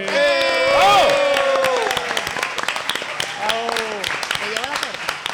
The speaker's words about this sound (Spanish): Un aplauso por ellos, por favor.